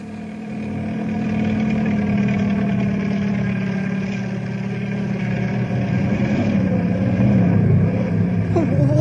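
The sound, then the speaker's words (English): A helicopter's engine and rotor drone loudly and continuously, a low throbbing hum that wavers unevenly in pitch, straining and climbing toward the end as if struggling, as the pilot is forced to land on a canyon floor. “I'm gonna have to land on the canyon floor.”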